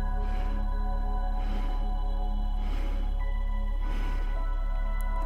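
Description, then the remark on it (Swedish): Breathing exercise: after a long inhale, breath pushed out in four short, evenly spaced airy puffs, each a soft whoosh, over a steady low humming drone with no talking. “Så vi andas in en lång inandning och ut i fyra delar.”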